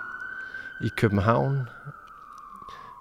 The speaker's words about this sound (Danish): Jeg ved ikke, om man kan høre en sirene i baggrunden. Det kunne jeg forestille mig. Den er meget sådan sigende for, at vi befinder os midt inde i